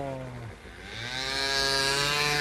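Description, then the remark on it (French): A small scooter engine revs up, its buzzing pitch dipping briefly then climbing steadily and growing louder as it pulls away, a continuous whining drone with no talking, as the scooter takes off while another person wearing a helmet runs after it. “L'autre il s'est barré le scooter et l'autre il est avec le casque il court derrière.”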